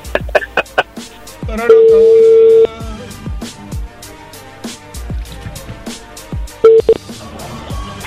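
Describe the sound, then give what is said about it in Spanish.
A telephone number is dialed again after a call was cut off: a phone line's electronic tones, a steady beep lasting about a second, then a brief pair of tones later, set against a busy stream of sharp clicks and percussive taps, with faint talk. “Márquenle de nuevo.”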